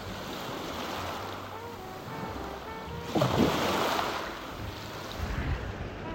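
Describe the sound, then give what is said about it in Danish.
Ocean waves wash steadily onto the shore, a continuous rushing surf with one fuller wave swelling and breaking midway, under a low rumble of wind, with no voices. “Det er en dejlig tryghed at være ved havet for mig.”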